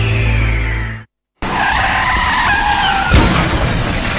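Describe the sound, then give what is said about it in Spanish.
Car tires squeal loudly in a long skid, cut briefly by a moment of silence, then screech again before ending in a sharp crash with breaking debris, in a Pi FM radio ad for Doctor Tránsito, traffic accident lawyers. “¿Chocaste? ¿Te lesionaste?”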